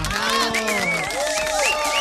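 A crowd breaks into applause and cheering, with bright whoops and high rising shouts riding over a dense, steady wash of clapping that stays loud for about two seconds.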